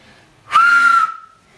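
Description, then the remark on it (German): A single attempted two-finger whistle: about half a second of rushing, breathy air carrying a thin, steady tone that trails off briefly, fairly loud with no talking. “Mein nächstes Ziel ist übrigens auf zwei Fingern pfeifen.”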